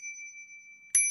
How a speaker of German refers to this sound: Modell Nummer 2. Die Eintonklingel.